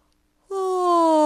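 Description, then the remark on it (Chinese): A voice imitates Mr. Lazy yawning in bed in a children's story, with a single drawn-out, voiced 'aah' that starts abruptly and holds steady and fairly loud, its pitch sliding slowly downward. “哦，又打了个哈欠，接着又睡着了。”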